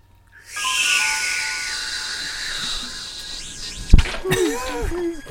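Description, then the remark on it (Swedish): A synthetic sci-fi time travel sound effect: a loud, airy hiss with high ringing tones sweeps on for several seconds, then a sharp zap gives way to quick warbling, bubbly electronic chirps. “Det låter så när man reser i ah!”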